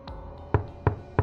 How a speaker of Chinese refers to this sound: 有人开始轻轻的敲门，声音很轻，却很清楚。